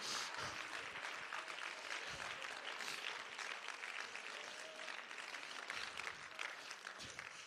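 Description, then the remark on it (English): A large group claps steadily for several seconds at a church service, a dense, sustained wash of hand claps with no clear individual rhythm, loud and continuous throughout. “Somebody clap your hands in the house right now.”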